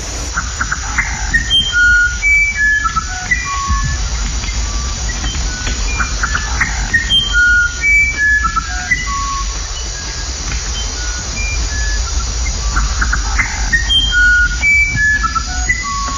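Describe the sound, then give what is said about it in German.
A very small flutist wren sings pure, flute-like whistled phrases, each a short run of clear tones stepping up and down in pitch, repeated in three bursts over a steady low rumble. “Der Flagellett-Zaunkönig flötet Passagen, die verblüffende Ähnlichkeit mit Melodien von Bach oder Haydn haben.”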